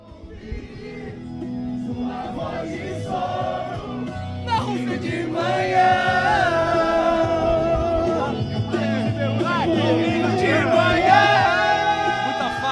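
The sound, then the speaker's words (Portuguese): A crowd of Brazilian football fans cheers and chants together outside the Brazilian national team's hotel, many overlapping voices swelling louder after a few seconds and holding a steady, boisterous roar through the end. “Vamos nessa, vamos ouvir a, a torcida brasileira aqui em casa.”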